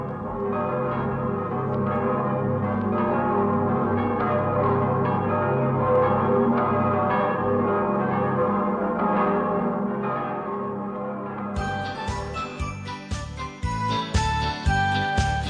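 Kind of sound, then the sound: signal or alarm, cathedral church bells ringing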